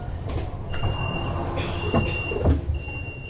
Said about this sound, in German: Der Zug hält. Dutzende Passagiere steigen aus und rennen mit ihren großen Koffern zu ihren Anschlusszügen, unter anderem in Richtung Aarau.